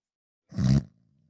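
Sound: snoring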